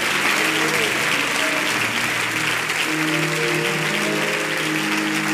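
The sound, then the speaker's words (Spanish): An audience applauds the Holy Spirit of God at the close of a Spanish-language sermon, steadily for several seconds, a dense, even wash of clapping that never lets up, with faint voices and sustained tones running beneath it. “Denle un aplauso al Espíritu Santo de Dios.”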